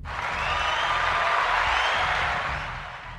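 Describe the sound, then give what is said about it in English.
A steady wash of applause from a group, dense and fairly loud, holding evenly for about three seconds before easing slightly at the end, with no voices on top. “I want to give applause.”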